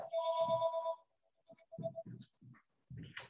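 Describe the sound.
A telephone ringtone sounds as a single bright, sustained electronic tone lasting about a second, followed by short bursts of indistinct voice.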